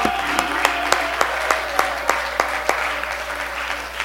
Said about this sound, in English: Come on, I think we can do just a little better than that. Can we lift up our voice and clap our hands? Hallelujah.